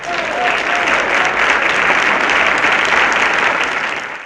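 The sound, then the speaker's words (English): A burst of applause sound effect congratulating a winner, dense and steady clapping lasting a few seconds before cutting off abruptly, with no talking over it. “Love the sound effect.”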